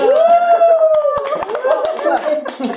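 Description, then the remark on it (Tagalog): A few hands clapping in scattered, uneven bursts that start about a second in, mixed with loud sustained vocal sounds and chatter from several people. “Bigyan ng palakpak.”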